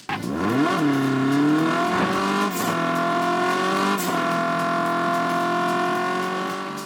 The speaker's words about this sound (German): Aber wie klingt denn nun der ganze Spaß? Nun, ein Fiat 500 klingt so.